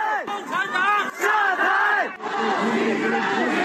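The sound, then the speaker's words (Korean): A large crowd of protesters in Urumqi, Xinjiang, China, shouts together demanding the lifting of a COVID lockdown. The loud, rhythmic chanting has many voices rising and falling in unison, with a brief pause before the chant surges again. “상해에서는 시진핑 주석의 하야와 공산당 물러가라는 구호가 등장했고 우루무치에서는 봉쇄 해제를 요구하는 목소리가 하늘에 닿았습니다.”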